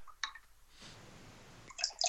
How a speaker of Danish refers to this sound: Så, så hælder vi op.